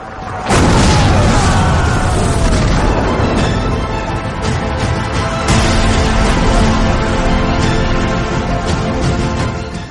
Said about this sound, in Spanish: Otra galera turca voló por los aires cuando estalló su Santa Bárbara, y otro navío recibió tantos tiros por babor que la nave comenzó a hundirse al fondo del mar.